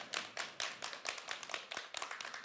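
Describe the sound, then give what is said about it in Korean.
An audience applauds the two people who took part in the session, with steady, rhythmic clapping, a run of bright, sharp claps at an even pace that keeps going for the whole stretch with no voices over it. “오늘 나오신 두 분도 박수 한번 너무 잘하셨어요.”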